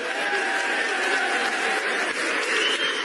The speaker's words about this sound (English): I have seen a lady who plays the saxophone fantastically. Give her a big applause.